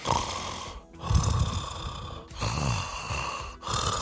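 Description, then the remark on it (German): Steady, monotone snoring in a repeating rhythm, with three or four rasping breaths separated by brief pauses, fairly loud, with no one talking. “Und dann kann kann man selber hören, ob, ob ab und zu das monotone Schnarchen, also”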